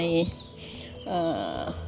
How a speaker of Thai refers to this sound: ดิฉันได้ยินเสียงนกรอบตัวเลยค่ะแล้วก็เสียงหมาเห่า